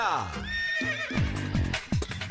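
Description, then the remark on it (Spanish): A horse neighs loudly and up close, a quavering whinny that rises and falls for about two seconds before breaking into snorting pulses. “Con las orejitas del caballo Alvin Díaz.”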